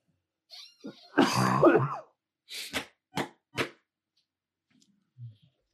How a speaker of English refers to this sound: sorry, had a bit of a coughing fit going on there, but we got it sorted out, I think.